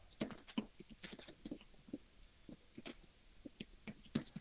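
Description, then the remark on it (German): Rapid, irregular clicking of keys being typed on a keyboard, a steady patter of short taps with brief pauses, fairly quiet, with no voices. “Aber ich höre ihn doch tippen.”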